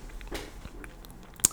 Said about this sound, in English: so sorry about that noise. That's the chair. It's a little creaky.